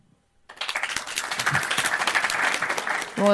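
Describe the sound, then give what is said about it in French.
An audience at a comedy show breaks into applause after a brief silence, answering whether anyone is against vins d'honneur, a dense patter of many hands clapping that builds and holds steady, ending as a voice begins to speak. “Par applaudissement, est-ce qu'il y a des gens qui sont contre les vins d'honneur”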